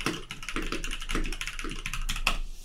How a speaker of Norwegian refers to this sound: Jeg skulle, jeg skulle bare si du kan se her, og så skrev jeg det, og så trykka jeg enter, og så kom det opp på chatten. Bare så du kunne se at jeg skrev noe reelt.